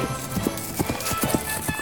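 Horse hooves clip-clop in a steady, uneven rhythm, several sharp knocks in quick succession at moderate loudness, as if a horse is trotting off, with faint background noise and no talking.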